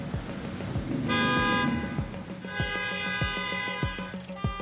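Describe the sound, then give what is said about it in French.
Several car horns honk over a busy street din from endless queues of cars waiting to fill up with fuel, one long blare followed by shorter toots, with a high horn near the end and engine rumble steady beneath. “Des files interminables de voitures et leurs conducteurs qui, dans le brouhaha des moteurs et des klaxons, attendent de pouvoir faire le plein.”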